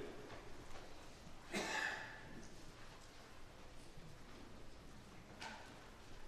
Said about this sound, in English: I love the sound of pages turning. There are many churches in, in the U.S. today where people don't bring their Bibles to church because they don't really use the Bible. So I love to hear that sound.